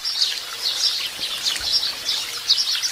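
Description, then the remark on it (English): A dense chorus of house sparrows chirping continuously, many overlapping bright cheeps from a flock in a plum tree in a front garden, with no one speaking. “on the other side, we've got a big tree in our front garden, plum tree, and both are laden with sparrows. This is exactly what it sounds like.”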